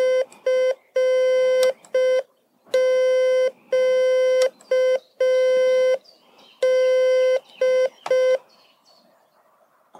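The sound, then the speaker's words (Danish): Steady electronic Morse beeps from an electronic key that keeps the dashes, dots and pauses even in length, at one mid pitch, a series of short dots and longer dashes with crisp on-off edges and brief silent gaps, sounding alone with no talk. “den sørger for, at stregerne altid er lige lange, uanset hvordan jeg trykker”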